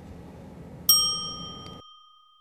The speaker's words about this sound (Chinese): 那小朋友们听到“叮”的声音后呢，请说出你的那一句。